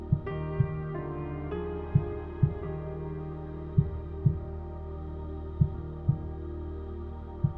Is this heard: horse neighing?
no